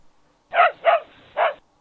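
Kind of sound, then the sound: animal, dog barking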